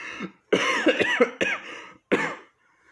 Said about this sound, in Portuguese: A pobre cigarra, toda tremendo, respondeu depois de um acesso de tosse.